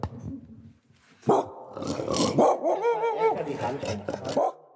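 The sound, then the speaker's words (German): A dog barks at a home in Planegg, a suburb of Munich, in a string of loud, rough bursts, some stretching into whiny, drawn-out yelps, after a quieter, rumbling opening. “wir mussten den erstmal sauber kriegen, den Hund, und deswegen nee, müssen wir später.”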